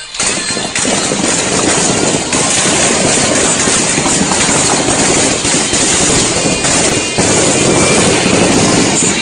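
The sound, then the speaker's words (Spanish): A vehicle engine roars loudly as it accelerates into a gas station during a heavy shootout on Avenida Universitarios in Culiacán, a dense, continuous rumbling drone that holds steady for about nine seconds with no voices over it. “Y acelera, wow. Acelera, se mete en la gasolinera.”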